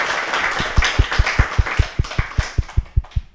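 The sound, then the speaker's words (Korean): Steady, rhythmic hand clapping as applause for a person called to the front, roughly a dozen sharp claps at an even pace over soft background noise, moderately loud with no one speaking. “박수.”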